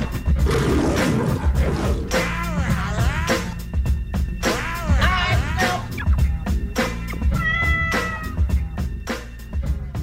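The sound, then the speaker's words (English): A lion's roar rings out loud, several drawn-out snarling calls rising and falling in pitch over a dense, rumbling background, with no talking. “King of the jungle.”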